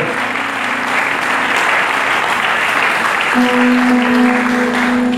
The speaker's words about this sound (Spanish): ¿Por qué no le da otro fuerte aplauso al Señor, por favor, en esta tarde?